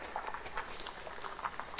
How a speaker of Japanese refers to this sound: パスタ茹でながら